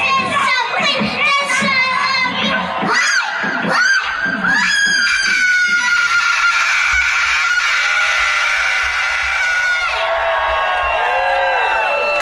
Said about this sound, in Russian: А закончила она свое выступление визгом громогласным, чем удивила не только зрителей, но и заставила вздрогнуть своего отца.